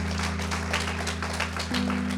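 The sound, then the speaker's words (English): An audience gives the pastors a clap offering, clapping steadily in a dense, continuous wash of applause, with a sustained low organ-like chord droning underneath that shifts pitch near the end. “We want to thank you and uh, give the pastors the clap offering.”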